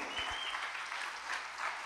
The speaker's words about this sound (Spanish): ¿Por qué no le aplaude a Jesús bien fuerte los que están alegres en este día?